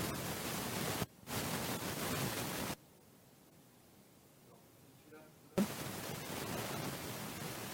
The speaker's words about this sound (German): Wieder mit Rauschen.